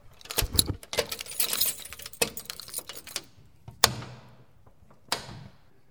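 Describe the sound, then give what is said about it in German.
A bunch of old keys to Naumburg Cathedral jangles and clinks for a few seconds, followed by the metallic clack of a lock turning and a heavy door latch, with sharp isolated knocks as the cathedral door opens. “Trotz Generalschlüssel haben wir ja noch hunderte von Schlüsseln, die zu eben zu vielen Türen führen. Aber die hören sich so richtig nach Mittelalter an.”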